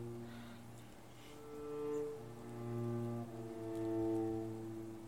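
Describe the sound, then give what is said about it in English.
A long, groaning metallic creak of an iron cell door swinging slowly, its low drawn-out tones swelling and shifting in pitch over several seconds, with no voices. “You hear the creaking iron of a telltale cell door.”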